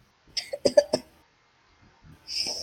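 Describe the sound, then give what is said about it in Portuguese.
A fairly loud sneeze fit: several rapid, explosive bursts in under a second, followed by a brief pause and then a soft, hissy breath or rustle. “Saúde.”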